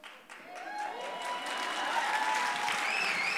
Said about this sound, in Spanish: Aplausos.